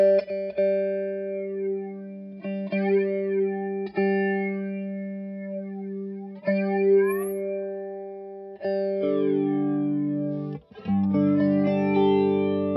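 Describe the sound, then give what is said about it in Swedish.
An instrument run through an effects pedal gives a steady, synthetic, robotic-sounding drone, broken by sharp clicks and glitches, then shifting to a denser, warbling modulated tone near the end. No voices. “Det känns som att den kan spåra ur den här pedalen.”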